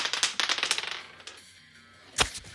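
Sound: dice being rolled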